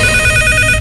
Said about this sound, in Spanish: ¡Ay, maldito teléfono! No lo pienso contestar.